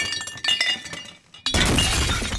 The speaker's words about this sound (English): Whoop. Hey, uh, you got any tips for cleaning up broken glass?